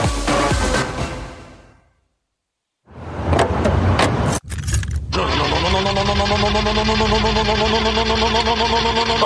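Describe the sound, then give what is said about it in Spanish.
A car engine cranks with labored, sputtering bursts, struggling to catch, after a brief stretch of silence; a steady mechanical drone follows. No one speaks. “No me hagas esto. Yo sé que tú puedes. No dejes que tu auto sea negativo.”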